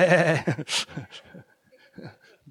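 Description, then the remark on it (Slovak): People in a church imitate a sheep's bleat, one loud, quavering "baa" at the start, followed by scattered talking and murmuring that fades to quieter sounds. “Koľko z vás ste ovce jeho pastvy? Môžeme v cirkvi povedať B.”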